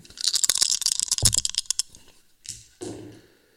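Three attack dice are rolled against Luke's three defence dice in a tabletop game, rattling and clattering across a hard tabletop in a quick burst of sharp clicks, followed by a few scattered taps and a final soft thud as they settle, showing two hits and a blank.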